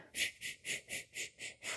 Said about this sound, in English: Breathe out like a kapalabhati. Did I say it wrong? I didn't write it down. Kapalabhati. Anyway, it's one of the breathing techniques that I teach you in my videos. So breathe out.